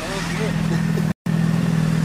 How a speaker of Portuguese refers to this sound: Mas com a moto dessa aqui também, como é que vai ouvir o barulho? Vai, vai ouvir o cara falar, doido? É só desligar.